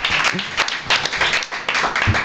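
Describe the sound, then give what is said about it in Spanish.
A crowd applauds steadily, many hands clapping at once in a dense, crackling wash of sound that stays loud and even throughout, with a faint murmur of voices underneath. “Un aplauso, se llevan pues, esa donación.”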